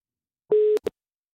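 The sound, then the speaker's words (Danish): A single steady telephone ringing tone over the line, unanswered, cut off after a moment by a sharp click and a brief electronic blip. No voices. “Han tager den ikke.”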